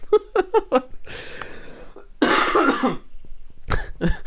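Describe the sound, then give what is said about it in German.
Short bursts of laughter give way to a rough, breathy stretch and then a harsh fit of coughing, ending with a couple of loud coughs. “Warte mal, ich muss kurz zu Ende lachen. Und husten.”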